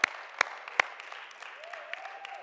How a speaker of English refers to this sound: any kids that want to go to kids' ministry, let's give them a round of applause as they make their way to kids' ministry.